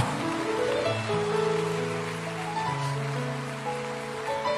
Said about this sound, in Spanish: Hay un Dios más poderoso si usted lo cree, déle ese aplauso al Dios de Abraham, al Dios de Isaac, al Dios de Israel, al Dios de los profetas, al Cristo resucitado. Dele ese aplauso de gloria.